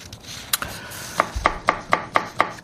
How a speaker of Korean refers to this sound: 이게, 이게 뭔 소리예요? 아, 이게 지금 보물 소리군요. 네. 우리 박 PD가 이 보물 소리를 지금 오늘 이걸로 정했나 봐요. 도마 소리예요. 무를 써는 소리 나네요.